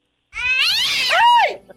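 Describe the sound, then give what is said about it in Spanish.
A kitten named Satanás lets out one drawn-out, fairly loud meow, its pitch wavering before sliding down at the end, with no other sounds around it. “Mi, mi niño quiere saber cómo se llama su gatito, dice.”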